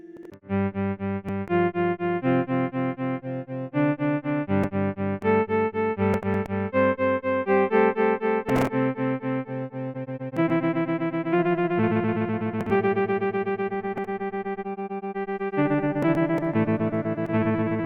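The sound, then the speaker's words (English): A synth melody plays steady chords and notes that are rapidly chopped into rhythmic bursts by a stutter effect, the sound cutting in and out in a regular, pulsing pattern throughout. “The stutter will interrupt the tune following an adjustable frequency.”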